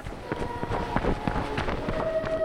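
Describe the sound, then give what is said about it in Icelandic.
Quick running footsteps of a person running after others to stop them thud across the ground outdoors, a steady rhythm of impacts under a constant rush of wind buffeting the microphone. “Ég, ég ætla að reyna, ég ætla að ná að stoppa þessa. Það er svona, byrjar að kerja í burtu maður hlaup, hlaupa bara eftir þeim”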